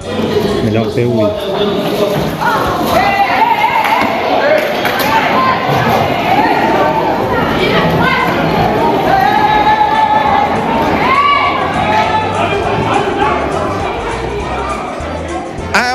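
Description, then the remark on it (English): A mass brawl in the Kosovan parliament chamber, sparked by an opposition politician throwing a glass of water over the prime minister: a loud, continuous uproar of many overlapping voices shouting and yelling at once, with raised cries rising above the steady chaotic din throughout. “Here's an opposition politician throwing a glass of water over the prime minister, sparking a mass brawl.”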